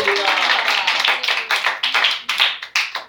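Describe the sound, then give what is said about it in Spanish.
A church crowd breaks into loud, dense applause given to Christ that soon thins out, leaving a handful of separate, sharp claps trailing off toward the end. “Denle el aplauso Cristo esta noche.”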